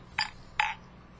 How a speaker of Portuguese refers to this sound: Vamos fazer um brinde à sua saúde e à das crianças. Tintim. Tintim.